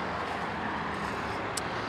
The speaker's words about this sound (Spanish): Espera, no cruces aún, ¿eh? que viene otro coche. Está esto difícil.